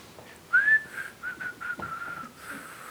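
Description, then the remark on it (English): A person whistles a short tune, starting with a rising slide and then a few quick, clear notes in a steady rhythm, moderately loud with no talking. “You know the Lord is talking to you, but you are, you are just playing fish and you are whistling.”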